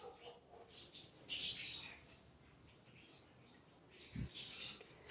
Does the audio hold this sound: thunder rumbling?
no